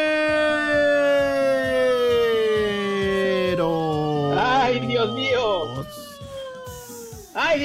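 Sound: ambulance siren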